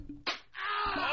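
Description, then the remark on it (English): A single quick slap cracks out, then a brief pause before a rising, breathy harmonic whoosh swells and grows louder to the end. No one speaks. “That's the sound of Aaron Judge getting bitch slapped all the way back to the Bronx.”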